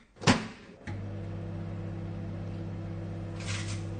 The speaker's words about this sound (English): if you'd like to set the microwave going,